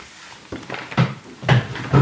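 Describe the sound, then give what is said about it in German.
Creaks and soft thumps of someone shifting around on a chair, about four bursts roughly every half second, with no talking. “Achtung, du musst nicht so, das hört man ja alles, dein Geruckle da auf dem Stuhl”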